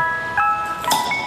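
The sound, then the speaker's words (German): A bright, tinkling jingle from the 'Frühstück mit Bier' beer cart, which brings fresh beer, plays a simple melody of sustained chime-like tones, fairly steady and moderately loud, with no talking over it. “man hört hier im Hintergrund unseren Frühstück mit Bier Bierwagen.”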